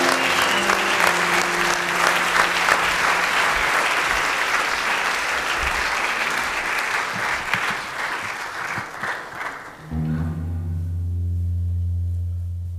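An audience applauds a female musician steadily for about ten seconds, dense and fairly loud, then the clapping cuts off as sustained musical tones and a low hum take over.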